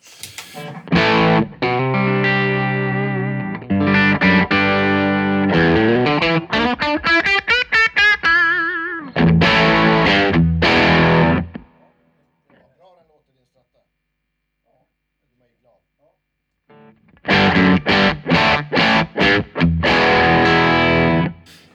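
A Stratocaster electric guitar played through heavy distortion: loud, buzzy chords and quick riffs, including a sliding run, then several seconds of near silence before another burst of distorted strumming.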